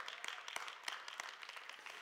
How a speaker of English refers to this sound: So if you're here today, friend, yeah, you can clap for Jesus.